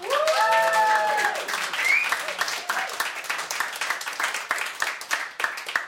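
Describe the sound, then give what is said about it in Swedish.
An indoor audience at a live Radio Total Normal broadcast from the Fountain House premises on Götgatsbacken 38 bursts into sustained applause, dense rapid clapping filling the room, with a few whoops and cheering voices rising over it at the start before the clapping carries on steadily. “Och som vanligt så har vi en entusiastisk skara av publik här. Får vi höra att ni är med?”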